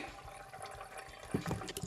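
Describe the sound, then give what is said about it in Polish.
Water trickles and drips steadily through a filter jug, heard up close with soft gurgles and a few slightly louder drops toward the end; no one speaks. “Odstawiam go teraz, spróbuję gdzieś tu telefon może przyłożyć, żebyście posłuchali jak ten dzbanek tę wodę filtruje.”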